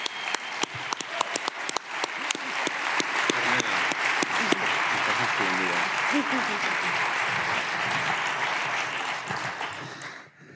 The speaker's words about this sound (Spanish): Yo ya sé que esto le da mucho pudor, pero pido un aplauso para